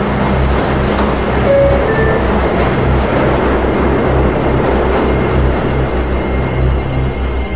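A subway train pulling out of the 42nd Street–Bryant Park station, a loud steady rumble with a deep pulsing motor drone, a thin high electric whine above it, and no voices.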